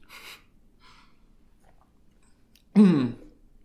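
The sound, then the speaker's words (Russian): Two quick, soft slurping sips of water, a brief pause, then a louder gulp and a voiced breathy exhale after drinking. No speech. “Сори, сейчас водичка попьем.”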